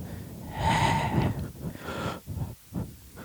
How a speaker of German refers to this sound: Ich, ich atme noch stärker ins Mikro. Vollkommen.